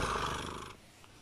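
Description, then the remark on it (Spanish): A voice imitates the constant, motor-like purr of creatures that appear outdoors, a steady rumbling drone that holds for under a second, then drops off to near silence. “Es igual que un ronroneo de un gato, pero constante, como un motor.”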